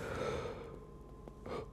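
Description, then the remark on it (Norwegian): A drawn-out, voiced yawn, starting with a long open groan and trailing off into a brief breathy exhale near the end. “Så det er hø, gjesp, gjesp”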